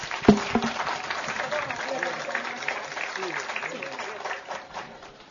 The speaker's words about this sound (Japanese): はい。大きな拍手を。